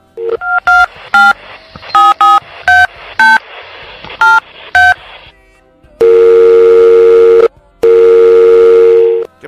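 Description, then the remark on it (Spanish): A rapid sequence of short, bright telephone keypad tones as a call to Enzo is dialed, followed by two long, steady ringback tones with a brief pause between them, loud, with no talking. “A ver, déjame marcarle a Enzo.”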